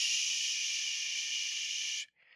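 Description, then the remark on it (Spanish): A voice imitates the whooshing white-noise hiss heard at a baby ultrasound: one loud, steady breathy hiss lasting about two seconds, then a brief break and a softer, shorter hiss. “Y pues obviamente cuando tú escuchas los sonidos del ultrasonido, pues escuché este”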